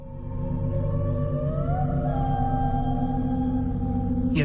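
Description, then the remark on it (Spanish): A deep, mysterious underwater sound, recorded by NOAA scientists in the depths of the Pacific and believed to be of organic origin but never identified, swells into a dense, loud low rumble, with a faint tone slowly rising over it and no voices, ending in a brief hiss. “científicos de la NOAA grabaron un sonido en las profundidades del Pacífico. Se cree que es de origen orgánico, pero no se ha podido identificar.”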